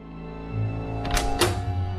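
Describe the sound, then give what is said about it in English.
A cabin door, cabin B 13 on B deck, is opened with two quick, dull thunks of the latch and door over a steady low hum and no talking. “Open the door. Here we are.”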